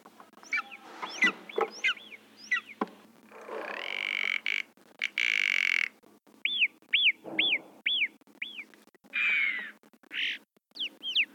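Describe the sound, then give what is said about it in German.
Recorded bird chirping played as a soundscape at a museum exhibit of stuffed animals: bursts of quick, high, arching whistled notes, some repeated in rapid series, with brief rougher calls between them, clear with no one talking. “Da kann man sich äh, das Zwitschern von den Vögeln wahrscheinlich anhören”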